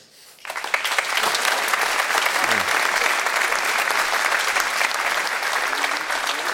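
A sudden burst of audience applause, many hands clapping in a dense, steady wash that stays loud and even for several seconds without any voices.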